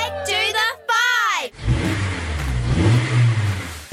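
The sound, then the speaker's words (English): A historic race car engine revs hard twice in quick succession, its pitch climbing and then dropping, loud. A lower, rougher rumble with a wash of noise follows. “see historic cars, motorbikes, and sidecars race it out at the 47th Historic Winton”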